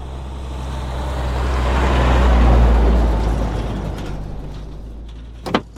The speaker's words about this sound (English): Then one day, everything changed. It started when a big truck arrived at the gas station.